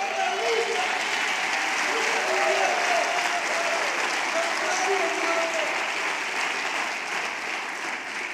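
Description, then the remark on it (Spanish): Steady, sustained applause for Jesus from a large audience, a dense wash of clapping that holds at an even loudness for several seconds with faint voices mixed in underneath. “Un aplauso a Jesús.”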